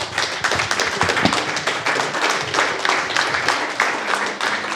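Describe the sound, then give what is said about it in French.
A crowd applauds the Bad Geek Podren team to thank them for their welcome, many hands clapping in a dense, continuous patter that holds at an even loud level throughout, with no pauses. “On peut encore une fois les applaudir, s'il vous plaît.”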